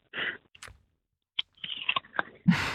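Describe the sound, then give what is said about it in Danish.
A soft, muffled bite into a soft, bad apple, followed by quiet wet chewing and a few mouth clicks, with breaths before and after and no talking. “prøv lige at tage et bid af æblet nu”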